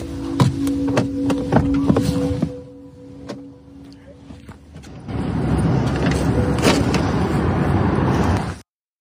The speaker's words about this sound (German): Also sie sitzt jetzt in diesem Auto, okay, musste nur einmal klicken like und jetzt fährt das Ding los. And I gotta say it drives pretty well. Like I think it drives better than I do.